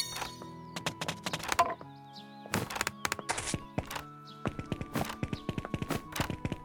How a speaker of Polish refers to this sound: Ale wezmę sobie sam footsteps, czyli echo.